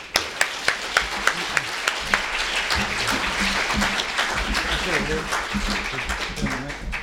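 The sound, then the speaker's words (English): A few sharp, evenly spaced claps quickly swell into steady, dense applause from an audience welcoming a speaker onto the stage, lasting several seconds, with faint voices murmuring underneath. “So, everybody, if you could please put your hands together”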